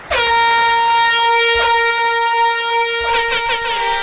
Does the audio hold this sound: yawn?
no